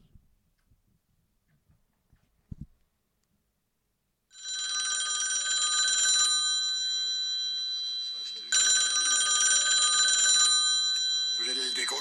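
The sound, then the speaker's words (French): A telephone rings loudly after a few quiet seconds, its bright, steady bell tone sounding in two long bursts separated by a brief pause. “parce que pile à ce moment-là, ils reçoivent un coup de téléphone.”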